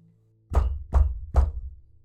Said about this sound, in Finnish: Kuntsi paukutti nyrkillään Atun ovea. Kesti pitkä aika, ennen kuin ovi aukesi hirveän räpeilyksen jälkeen.